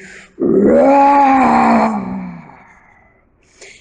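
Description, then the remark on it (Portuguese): A person imitates a jaguar's growl with one loud, rough, throaty roar that slides downward in pitch and fades out over about two seconds, followed by a brief faint sound. “pernas para que te quero, saíam todos correndo da onça.”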